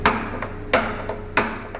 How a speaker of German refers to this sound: die Passreifen werden mit einem speziellen Setzhammer äh, angetrieben, aufgeklopft